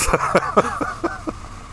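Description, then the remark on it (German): A tractor pulling a very long trailer passes by on a road, its engine droning beneath a steady series of rattling clanks roughly every quarter second, with no voices. “Das ist aber ein Traktor. Ja? mit einem Anhänger.”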